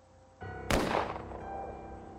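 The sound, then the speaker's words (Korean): A single loud gunshot cracks sharply and rolls away in a reverberant decay, preceded by a low ambient rumble that continues faintly afterward. No one speaks. “내가 당황하고 있을 때 또 한 번의 총소리가 들려왔다.”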